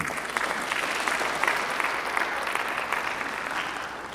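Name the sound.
audience applauding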